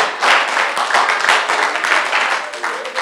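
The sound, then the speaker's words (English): An audience claps steadily during a preacher's sermon for about three seconds, a loud, dense patter of many hands that holds its level throughout before thinning slightly at the end. “I'm giving you two seconds to finish the clapping and then I'm wasting my time.”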